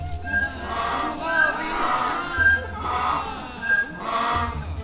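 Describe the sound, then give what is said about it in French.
A donkey brays loudly, its rasping hee-haw rising and falling in several rhythmic cycles that continue without pause across the whole stretch. “Et l'âne se mettait à brère de plus belle.”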